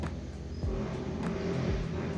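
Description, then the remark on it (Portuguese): Steady low rumble of a moving car's interior heard while recording inside the car, a dense engine and road drone with occasional deeper thumps and shifts, filling the space with constant noise and no voices. “Nossa, gravar no carro é muito barulho.”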